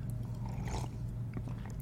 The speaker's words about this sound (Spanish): un traguito a mi café